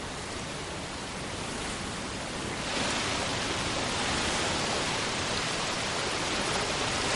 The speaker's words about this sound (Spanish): En el bosque, el padre y el hijo se acercan a una cascada.